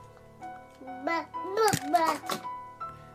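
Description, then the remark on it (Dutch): At three in the morning, a baby fusses and babbles in short, rising whimpers, then a few sharp clattering knocks sound as the pacifier is thrown, followed by more quiet fussing. “En je, hoort echt dat hij de speen weggooit op een gegeven moment.”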